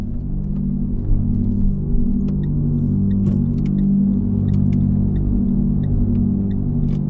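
Steady low engine rumble from inside a car driving toward Disneyland at Marne-la-Vallée, France, a continuous droning hum with slowly shifting tones and faint clicks, loud, with no one speaking.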